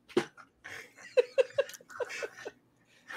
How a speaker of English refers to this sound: What's wrong with your dog? Is he angry? No, he's pulling on on the ball.